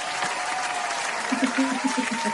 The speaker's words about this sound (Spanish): Aplausos.